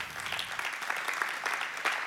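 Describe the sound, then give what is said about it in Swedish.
An audience applauds steadily for about two seconds for the chairman of an integration council, a pastor in Botkyrka, a dense, even patter of many hands clapping at once with a bright, crackling texture and no voices. “En stor applåd.”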